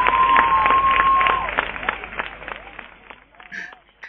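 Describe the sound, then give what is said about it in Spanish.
A few seconds of quick, irregular hand clapping, close and fairly loud, celebrating a first subscriber, with voices cheering over it before the claps thin out and fade toward the end. “Venga, aplausos, aplausos. Oh, bravo, bravo.”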